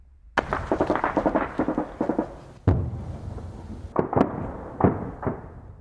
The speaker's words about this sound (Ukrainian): У Соледарі не вщухають звуки пострілів. Там продовжуються точитися бої, які забирають життя українських воїнів.